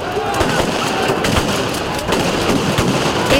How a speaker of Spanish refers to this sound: Los manifestantes lanzaron piedras y botellas y se produjo una carga policial.